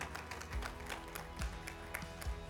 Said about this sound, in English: Come on, y'all give the Lord a hand clap of praise this morning.